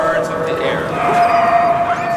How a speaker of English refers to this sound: The reason we begin here is because today the church is filled with dogs.